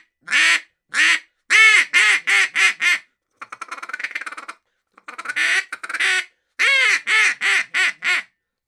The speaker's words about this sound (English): is a single reed duck call acrylic, uh, blaze orange. Um, this is what she sounds like.